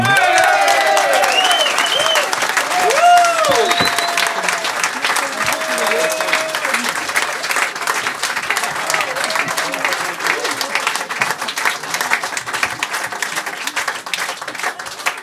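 Loud, sustained applause from a large audience, dense clapping filling the whole stretch with scattered cheers and whoops rising above it, gradually thinning slightly toward the end.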